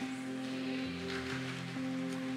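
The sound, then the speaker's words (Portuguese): A steady, dense hiss of heavy rain pours continuously, with a constant low electrical hum running beneath it and no voices. “Irmão, a chuva tá forte, hein?”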